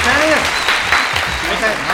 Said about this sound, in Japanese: 毎回毎回何に拍手してるのか分かんないけど、数が増えるたびに拍手するっていう